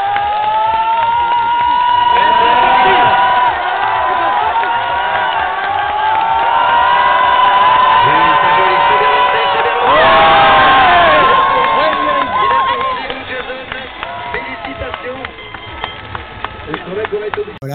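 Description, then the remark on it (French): A large outdoor ski jump spectator crowd cheers loudly and continuously at a 2010 jump by Jason Lamy Chapuis, with rising roars, shouts and horn-like tones swelling around the middle before the noise eases off toward the end. “L'occasion d'introduire un petit son euh, d'un saut de Jason Lamy Chapuis en 2010 quand on dit foule et ferveur.”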